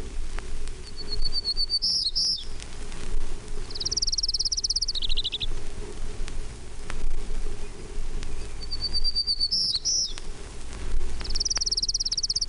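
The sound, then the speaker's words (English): A Johnson's warbler sings short, high, buzzy phrases, repeated roughly four times at intervals over a steady low background hum, with no one talking. “Johnson's warbler. One, three.”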